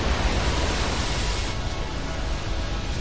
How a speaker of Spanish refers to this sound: Bagheera se detiene ante un río con mucha corriente.